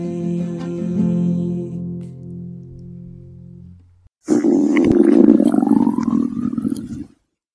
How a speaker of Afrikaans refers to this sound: dis my maag wat so raas.